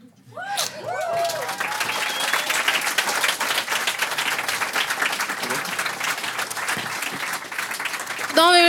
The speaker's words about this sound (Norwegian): Og tusen takk til alle som eh, kom hit i dag. Applaus for dere sjæl.